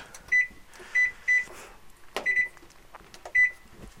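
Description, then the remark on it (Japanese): A washing machine's control panel gives a series of short, high-pitched electronic beeps at uneven intervals as it is started, with a soft clunk midway through and no talking. “はいというわけで今洗濯機を回しました”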